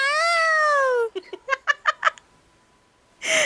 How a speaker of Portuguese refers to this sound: a pessoa bota o microfone na frente do gato e ele fica miando com o autotune.